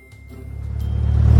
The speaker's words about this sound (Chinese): 马力十足的遥控飞机飞上了天，在蓝蓝的天空下一圈一圈的盘旋着，嗡。佐罗利师傅真厉害，三两下就装好了，遥控飞机飞上天喽！